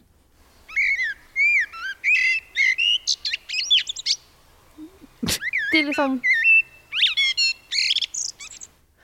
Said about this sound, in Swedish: Det känns lite typiskt mig att jag ska börja recensera den här fågelns läte nu, ja. men det blev lite falskt. Mot slutet. det blev lite Ja. Det men det var, det var, bara just den här koltrasten.